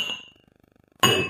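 Glasses clink together twice, a bright ringing chime that fades out, a quiet pause, then a sharper, louder clink that rings on. No voices.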